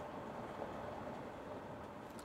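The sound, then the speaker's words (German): A steady, low rumbling drone of a train interior while riding, an even wash of engine and track noise with no distinct clatter, fairly quiet and unchanging throughout. “Und darum sitzen wir jetzt in diesem Zug”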